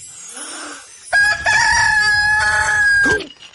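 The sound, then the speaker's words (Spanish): A rooster coming out of a stable at daybreak crows once, a loud drawn-out cock-a-doodle-doo that rises and holds before trailing off, preceded by a soft, brief cluck and some quiet background noise. “Espontáneamente cacarea.”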